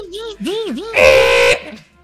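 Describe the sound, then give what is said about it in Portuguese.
A voice imitates a dot matrix printer, starting with wavering, swooping pitched hums and then breaking into a loud, harsh, buzzy rasp for about half a second before trailing off. “E eu lembro dessa impressora matricial. E era uma desgraça usar aquele negócio, porque tinha que arrumar a é fita do negócio, Faz barulho botar altíssimo.”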